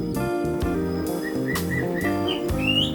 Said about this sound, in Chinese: 但我这礼拜因为台中下雨了，所以很难录到它真的在叫的时候，我就录到简单的几段，请你们在这一集慢慢听，它会落在不同的段落。好啦，你们再仔细寻找一下可爱的画眉鸟叫声，希望可以疗愈大家在家里有点伤心的日子。